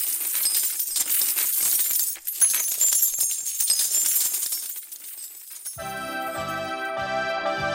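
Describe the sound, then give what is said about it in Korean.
A dense cascade of coins pours out of a piggy bank cut open at the belly, clinking and jangling continuously for several seconds, fairly loud, before music with steady tones takes over near the end. “돼지저금통 배 갈라서 동전 와르르 떨어질 때 아주 부자 된 것 같고 그랬데 말이죠. 저금통의 동전 소리.”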